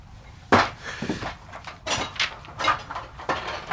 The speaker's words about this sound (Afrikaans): Kas hier staan. Oop. Kom ons kyk. Ag nee, sies blik. Vind ons ou skoene. Plastiek sakke.